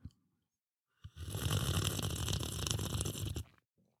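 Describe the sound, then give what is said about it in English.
A person imitates a bong hit with their mouth, producing one long, loud, gurgling slurp, like sipping hot liquid, lasting a couple of seconds with silence around it. “That did not sound very bong like. That sounded like sipping hot liquid.”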